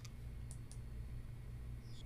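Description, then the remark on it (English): A few sparse, faint clicks of a computer mouse and keyboard keys, spaced irregularly over a steady low hum, with no one speaking, as someone scrolls to the Bitcoin tab in Cash App, clicks buy Bitcoin and enters an amount. “So I'm scrolling over to the Bitcoin tab, clicking buy Bitcoin and entering $20”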